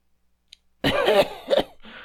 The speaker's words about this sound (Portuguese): Tô com, cara, tô com um pigarro aqui na garganta e puta que pariu.